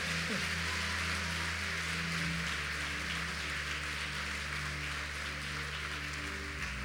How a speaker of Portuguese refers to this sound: Você pode aplaudir a Jesus o mais forte que você puder.